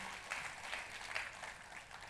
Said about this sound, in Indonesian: Tepuk tangannya lebih meriah buat Yesus Tuhan kita.